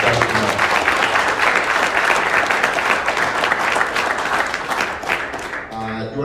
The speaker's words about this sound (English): Uh, we're going to end it here. Uh, we're basically out of time. So, a uh, round of applause for our, our speakers coming out.